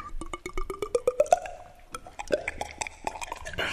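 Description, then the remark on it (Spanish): A voice imitates drinking water: a quick run of wet mouth clicks and gulping plops, rising slightly in pitch, then a few slower, scattered gulps. Moderately loud, with no talking. “no, este, lo que me gustaba era como que imitar este los sonidos, por ejemplo, cuando está tomando agua.”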